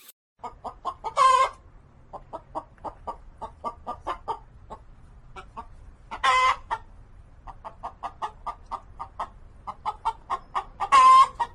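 Hens cluck in steady, rapid, clear bursts, with three louder, drawn-out squawks rising above the chatter at regular intervals. No one speaks.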